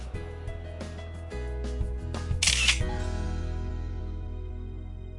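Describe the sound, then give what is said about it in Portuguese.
A single camera shutter click snaps out as a short, bright burst midway through, set against a steady low hum that continues before and after. It takes a group photo in front of a snow sculpture of a castle. No one speaks. “みんなで写真を撮りましょう”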